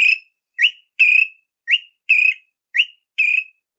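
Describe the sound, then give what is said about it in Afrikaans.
A greater honeyguide's whipper call: clear, ringing whistled notes alternating short upslurred and longer burry ones, seven in steady rhythm over a few seconds, loud with nothing else audible. “en die antwoord lê dan heel moontlik dat hierdie parasiet die groot heuningwyser is want hy't so effens geel op die bors en enige iemand jy sien hom byna nooit nie hy's 'n skalkse voeltjie in die, in die takke maar die whipper whipper luister bietjie”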